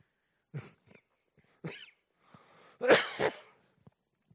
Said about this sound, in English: that's not a corona cough, by the way. That's a heartburn cough.